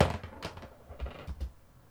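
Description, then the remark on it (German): Dice rattle and tumble across a hard surface, a quick burst of light clicks and soft knocks that settles within a couple of seconds, with no talking; the roll comes up six. “Und ich würfel.”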